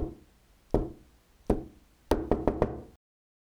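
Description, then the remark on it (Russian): Coded knocking from outside on the door of Sylvester's small house: three spaced, solid knocks followed by a quick rapid burst of three more, fairly loud, with no voices. “Снаружи послышался стук стучат условно, три раза раздельно, потом коротко, дробно.”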